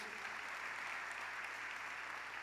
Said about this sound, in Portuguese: Podemos aplaudir ao Senhor? Glória a Deus.